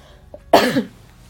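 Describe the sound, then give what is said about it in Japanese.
A single sharp cough bursts out abruptly and fades within a moment, with no talking around it and only faint background noise before and after. “うん、ということでなんかもう本当にねいっぱい咳してすいませんすごい聞きづらいと思いますけど”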